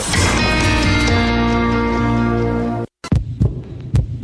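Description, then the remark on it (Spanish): A loud, sustained droning tone cuts off into a brief silence, then a heartbeat sound effect in a Mexican charity advertisement follows: heavy thumps in an uneven pulsing rhythm. “¿Escuchas? Es el corazón morado y amarillo de todos los mexicanos.”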